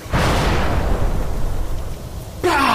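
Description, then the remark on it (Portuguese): A magical whip made of flies, swung by an arm, cracks down into the ground with a heavy, explosive boom that rumbles away for a couple of seconds, followed by a second sharp, bright burst near the end. “E vocês ouvem um quando do nada um chicote de moscas, vocês veem tipo ele balançar o braço e várias moscas se colocam numa posição e ele bate no chão.”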